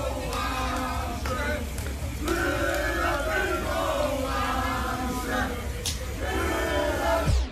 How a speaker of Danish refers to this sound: Der er øh, masser af fans, som i øvrigt også øh, hele tiden råber øh, det her.